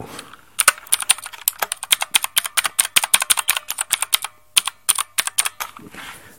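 Rapid clicky keystrokes on the mechanical computer keyboard used for filming a video, crisp, in an uneven typing rhythm with a couple of brief pauses, no voices present.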